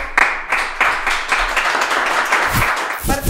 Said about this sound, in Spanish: Aplausos.